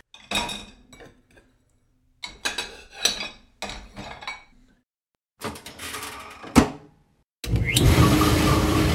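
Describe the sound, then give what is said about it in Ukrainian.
Pots and pans being washed in a kitchen, scrubbed with baking soda, salt and vinegar, clank and scrape in several short bursts, followed by a steady rush of running water as the washing continues. No one speaks. “І от ними якісь кастрюлі, сковорідки, щось таке е, там на кухні я відмиваю.”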